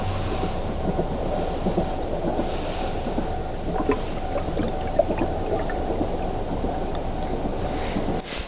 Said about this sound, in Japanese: JR も動いております